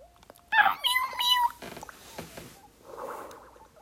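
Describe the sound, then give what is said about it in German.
A cat meows in a few bright, wavering cries in a cat food advertisement, followed by softer scuffling and a brief muffled rustle; no one speaks. “Nee, es ist einfach Katzenfutterwerbung.”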